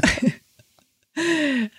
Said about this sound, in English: Bless you.